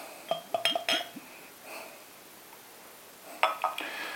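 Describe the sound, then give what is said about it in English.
Beer poured into a half pint glass: sharp glassy clinks and taps, then a brief soft rushing pour, followed by another burst of clinks. No voices. “Right, here we go then. Get it in the glass.”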